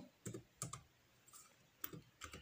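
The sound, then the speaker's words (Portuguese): Keys clatter on a computer keyboard as someone types with one hand while logging into email, in short, irregular bursts of a few taps each, fairly quiet, with brief pauses between clusters and no voices. “Tô digitando com uma mão, velho.”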